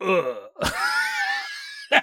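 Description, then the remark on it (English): A voice gives a short grunt, then draws out a long, strained, creaking groan imitating a haunted house setting down a heavy load, followed by a quick laugh. “That's the sound of a haunted house when it sets down a heavy load.”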